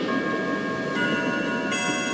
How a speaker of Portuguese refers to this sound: Há um relógio secular na minha casa